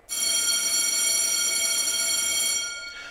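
signal or alarm, school bell ringing

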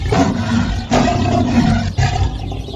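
animal, tiger roar

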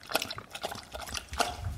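animal, dog lapping water

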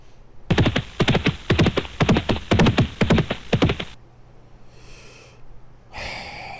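animal, horse hooves clip-clopping

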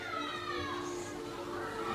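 crowd, children playing outside

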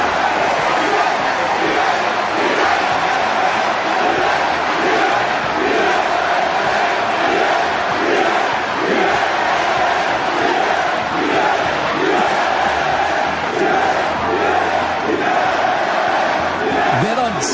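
crowd, crowd cheering and celebrating

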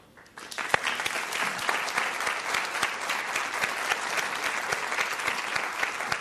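crowd, audience applauding

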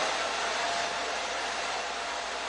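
household object, hair dryer blowing

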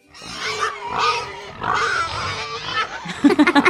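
animal, pig oinking

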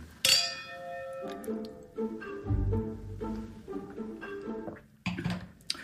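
household object, glasses clinking

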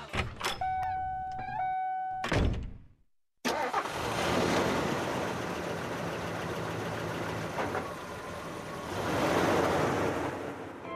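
vehicle, car engine starting

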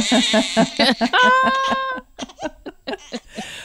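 human body sound, baby crying

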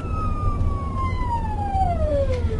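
vehicle, emergency vehicle siren wailing

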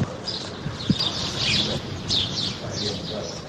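bird, small songbirds singing

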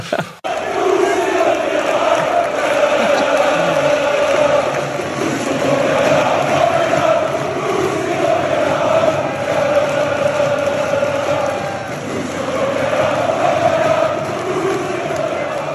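crowd, football supporters chanting

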